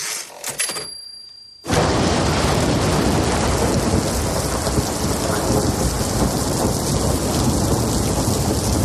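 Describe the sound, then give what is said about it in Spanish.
A brief quiet moment with a faint click gives way to a loud, dense thunderstorm at night: heavy rain pours steadily while deep thunder rumbles throughout. “Una noche tormentosa y oscura.”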